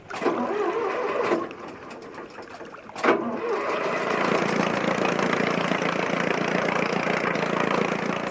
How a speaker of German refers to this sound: Werfen Sie den Motor an.